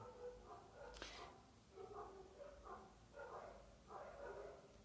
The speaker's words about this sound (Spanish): Voy a cerrar la ventana que están ladrando los perritos.